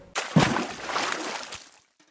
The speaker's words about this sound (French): Allez, je vous embarque avec moi pour une plongée dans les rivières d'Amazonie, on va vérifier ça. Je plonge